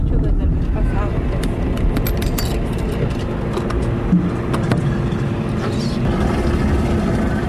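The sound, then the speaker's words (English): Four empty plastic water jugs knock and rattle irregularly inside a moving 1987 Toyota Corolla without air conditioning on a stifling day, driven to town to buy water, their light hollow bumps scattered over a steady low road and engine rumble. “Four empty water jugs bump around in the family's 1987 Toyota Corolla.”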